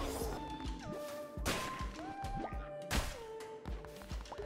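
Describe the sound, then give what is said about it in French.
Heavy crashing impacts of a slow, destructive hammer melee attack in a video game, several booming smashes spaced about a second or more apart, each a broad burst of noise, layered over sustained synth tones and clutter, with no speech. “Oh Le marteau Lent est destructeur.”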